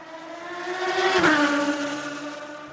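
A Formula 1 race car screams past, its high, buzzing engine note rising in volume and then dropping sharply in pitch as it goes by, fading out over a few seconds.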